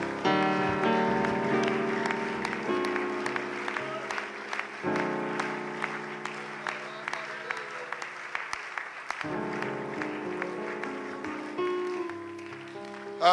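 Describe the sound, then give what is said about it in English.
An audience claps hands in praise of God in sustained, dense applause for about thirteen seconds, steady and loud, with held organ-like chords sounding underneath and shifting a few times. “Give God a thunderous hand clap of praise today.”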